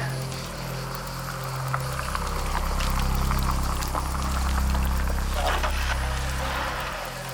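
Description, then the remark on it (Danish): A car passes by high up on a mountain, at the entrance to a cave, its low rumble swelling steadily to a peak around the middle and then easing off, with faint rustling and clatter above it. “Og der vil jeg jo gerne ind kommer der en bil.”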